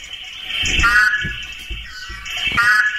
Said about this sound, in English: no, no way. That's, not that's not the horn frog. I know. It says horned frog mating call.